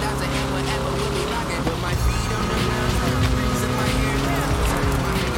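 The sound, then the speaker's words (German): A buggy's engine in a racing game drones steadily and loudly throughout, its pitch wavering as it accelerates and shifts, with a voice talking over the continuous motor noise. “Der Buggy, der hat aber auch schon was drauf.”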